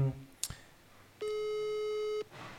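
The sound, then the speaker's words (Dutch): A single long electronic ringback tone from a phone call that goes unanswered sounds for about a second, steady and clear, after a brief click, with quiet background noise around it. “We kunnen nog even proberen of hij, of hij misschien nu wel opneemt.”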